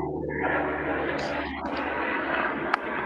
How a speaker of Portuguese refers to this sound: Ah, tá, porra. O helicóptero passando, bebê.